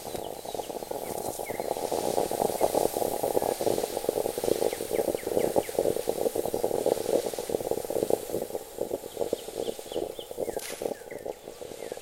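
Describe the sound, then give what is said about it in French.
A household's second stovetop moka pot (Italian coffee maker), a little larger than the first, bubbling and sputtering steadily, a dense crackling gurgle that carries on without a break, fairly loud with no voices. “Celui-ci est le son de notre seconde euh, cafetière italienne, un peu plus grande que la précédente.”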